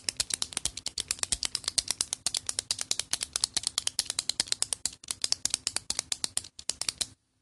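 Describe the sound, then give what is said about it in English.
A pen clicked over and over in a quick, steady rhythm for about seven seconds, sharp, with no one talking. “That's the pen clicking sound.”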